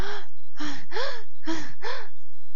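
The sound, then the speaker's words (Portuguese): A voice imitates gasping for breath: five sharp, voiced gasps in quick succession, fairly loud, each a short strained inhale with a rising pitch, no words spoken. “E daí parece que tu não tá respirando, que tu tá tipo.”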